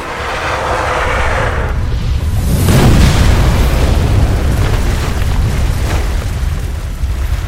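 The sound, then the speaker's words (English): A rushing hiss builds into one massive, loud crashing impact, like thick ice sheets shattering, followed by a deep rumble and scattered cracking debris that slowly trails off. No voices. “The impact shattered the massive ice sheets, casting them both beneath the frigid surface of the water.”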